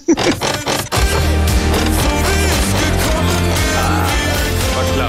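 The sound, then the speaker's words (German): A loud snippet of a pop song with a steady bass line and dense layered instrumentation, starting with a few choppy hits before settling into a continuous, full-sounding groove. “Und wie heißt der Song?”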